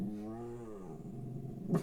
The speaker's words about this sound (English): So vicious. He's such a good guard dog.